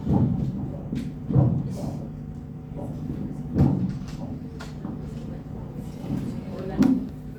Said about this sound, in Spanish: un ruido que suena mucho más mocoso. Suena mucho más mocoso que el anterior. Ahí está crepito. A ver. Como un velcro. Como unas mini explosiones.